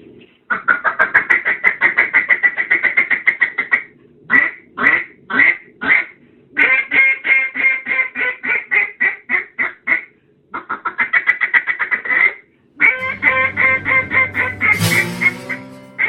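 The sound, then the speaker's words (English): A duck call blown loud, imitating mallard quacks: long rapid runs of raspy quacks, a few spaced single quacks, more fast sequences, then a final run over a low drone. “On this podcast, it's all about duck calls and duck hunting.”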